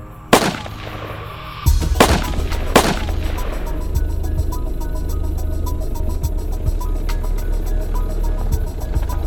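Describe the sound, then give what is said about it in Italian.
Several sharp, loud gunshots crack out in quick succession near the start, followed by a steady low rumble of a car engine underneath: a killer fires again at two young people in their car on a provincial road at Baccaiano, near Montespertoli, Italy, in 1982. “L'assassino spara ancora, colpisce di nuovo i due ragazzi e scappa.”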